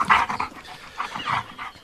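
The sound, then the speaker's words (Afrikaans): A dog pants in quick, breathy bursts with soft whimpering whines mixed in, moderately loud, with no talking. “Hoor jy wat sê Albert Bixie? Hy wil 'n ander hond kry.”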